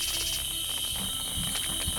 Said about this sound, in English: Good night, cicadas. you loud assholes.